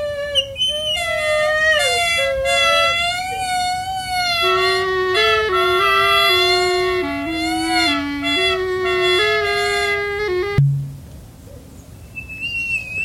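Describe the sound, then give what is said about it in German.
Two creatures called Trötkehlchen bellow each other down: two loud, brassy horn-like calls blare over each other, a higher one holding steadily while a lower one joins halfway through, until both cut off abruptly with a short thud as one drops an egg into the other's sound funnel, leaving quiet. “Sie brüllen sich gegenseitig nieder, bis einer der beiden keine Lust mehr auf den Krach hat und dem anderen flugs ein Ei in den Schalltrichter legt.”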